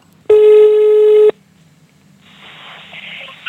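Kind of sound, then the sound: signal or alarm, telephone call ringing tone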